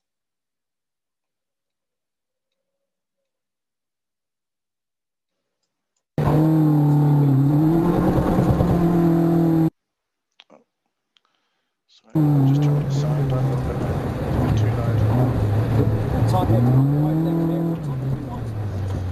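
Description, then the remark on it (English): A loud car engine drones and shifts pitch as it speeds up and eases off around the Goodwood circuit in an anti-clockwise direction, in wet, cold February weather, cutting out briefly before roaring on again; a voice speaks a single word. “I'm going to show you going around um, Goodwood in an anti-clockwise direction.”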